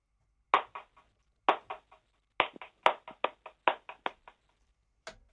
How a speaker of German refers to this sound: kannst du es nochmal klatschen?